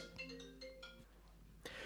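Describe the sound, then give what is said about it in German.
A phone ringtone plays a short, bright electronic melody of stepped tones for about a second, fairly quiet, followed by a brief rustling noise toward the end. “Also heute ist Telefonterror.”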